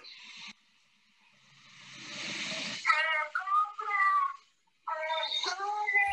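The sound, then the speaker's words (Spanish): A scrap-metal buyer's loudspeaker call rings out on a street in Mexico City: an amplified, drawn-out sing-song voice in several phrases, following a rising swell of traffic-like noise, loud. “Eh, otra cosa es lo del fierro viejo aquí en México, para que nos escuchen en otro país, por ejemplo, es clásico esto, esto es, esto es clasiquísimo.”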